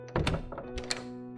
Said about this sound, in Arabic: والدي استسلم وبص من العين السحرية لما ارتاح للي شافه على الناحية التانية من الباب حط المسدس في جيبه وفتح الترباس وبعدين فتح الباب